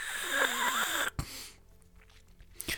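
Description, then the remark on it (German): A voice imitates a woman loudly slurping tea from a teacup, a loud, airy slurping noise for about a second, followed by quiet with a couple of soft clicks. “Wir können uns auch vorstellen, sie schlürft ihn richtig laut.”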